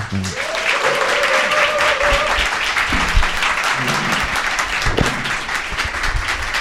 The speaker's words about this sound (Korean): 편집장님. 박수로 모셔보겠습니다.